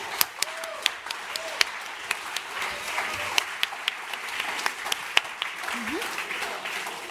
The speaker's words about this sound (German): Dankeschön. Dankeschön. Großen Applaus bitte.